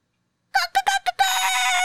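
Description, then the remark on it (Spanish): A few quick clucks from a chicken, then a rooster launches into a loud, sustained crow that runs until the end. Clear, with no talking. “Como que, y si lo que considera que es perturbador es como que una gallina, por ejemplo.”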